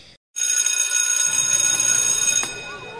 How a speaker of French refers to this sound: J'avais une grosse boule dans la gorge, et la cloche de la récré a sonné.